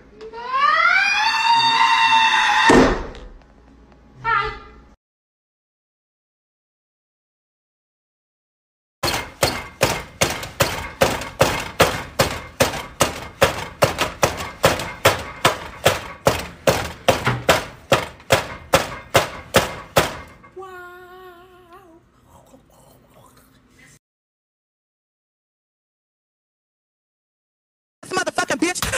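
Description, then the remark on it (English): Loud thumping and banging on a door, a rapid steady run of heavy knocks lasting around ten seconds, with a brief wavering wail before it and faint sounds trailing after. “What's up with this door?”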